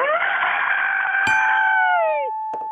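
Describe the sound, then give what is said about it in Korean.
A voice mimics a cutter grinding through steel pipe: a sustained, shrill, harmonic screech held for about two seconds, then bending downward and cutting off, with a sharp click midway and faint noise after. “아, 혹시라도 우리가 또 놓친 게 있을 수 있으니까, 네, 네 파이프 어, 절단기로 절단기로 쇠파이프 자르는 소리 다시 한 번만 한번 앵콜로 들어보겠습니다.”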